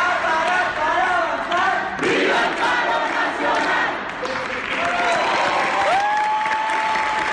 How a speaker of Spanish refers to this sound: luego de recibir su diploma, los recién graduados tomaron varios carteles para mostrar su inconformidad, que recibió una ola de aplausos de quienes estaban en el lugar.